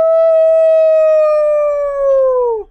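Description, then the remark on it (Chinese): A single long wolf howl holds a steady mid-high pitch for over two seconds, then slides downward and cuts off. It is loud and clear, with no voices over it. “还要甩开追赶他们的老狼”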